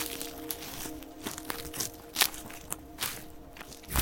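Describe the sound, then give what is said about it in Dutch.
Footsteps of a person on a walk from a parked car crunch steadily over a leafy forest floor, with soft crinkling of twigs and debris under each step and no talking. “Dan gaan we even een stukje lopen.”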